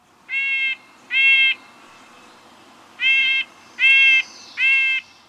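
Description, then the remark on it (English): Five nasal, tinny calls of a stubby-tailed red-breasted nuthatch flying into a yard ring out clear, a pair of toots followed by a pause and then three more in steady rhythm, with no talking. “Just behind it wings a stubby tailed red breasted nuthatch.”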